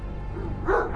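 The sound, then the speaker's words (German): A watchful dog barks once, a short, fairly loud woof near the end of a brief moment with a low background rumble. “Shaka ist meine einzige Sicherheit. Ein guter, wachsamer Hund.”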